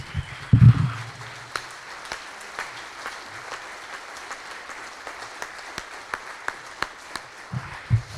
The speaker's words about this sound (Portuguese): Eu gostaria que todos nós aqui aplaudíssemos ao Senhor pela vida desses homens.